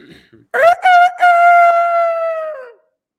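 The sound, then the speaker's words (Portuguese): A person imitates a rooster's crow: a few choppy opening bursts, then one long, strained, sustained high note that wavers slightly and fades after about two seconds. “Não é possível que você não reconheça que foi uma ótima imitação de Galo”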